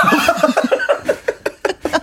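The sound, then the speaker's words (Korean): A person imitates a horse's whinny with a rapid series of bright, pulsing vocal bursts, about ten quick stuttering calls that rise then fade, fairly loud. “말그 말소리 아니에요? 힝!”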